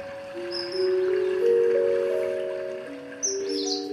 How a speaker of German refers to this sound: Und obwohl er nur über die Straße gehen müsste, um im englischen Garten zu sein und die Vögel zu hören, hat er sie auf einer Tonkassette konserviert heimische Vögel und exotische Vögel, gemischt mit seiner Lieblingsmusik